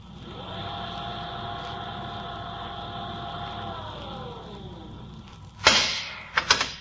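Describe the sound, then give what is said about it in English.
A steady mechanical hum with whining tones winds down, then a sharp, loud pneumatic hiss bursts out, followed by two quick clunks, as a spacecraft airlock door leading to space swings open at the press of a button. “The airlock door swung open.”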